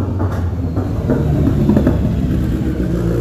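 A steady low engine rumble from a passing motorcycle on the street, fairly loud and continuous throughout, with no voices.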